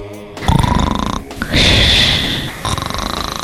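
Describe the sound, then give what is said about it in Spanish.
Loud, rasping snores, two drawn-out rattling breaths with a higher hissing exhale between them, likely a voice imitating snoring. “¡Eh, eh despierta!”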